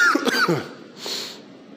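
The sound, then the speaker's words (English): A couple of harsh coughs in quick succession, followed by a softer breathy exhale or throat sound, with no talking. “And so if you listen to this before that, pray that uh, the Lord heals me before I don't, I don't, I don't want to cough my way through it as I'm doing with this.”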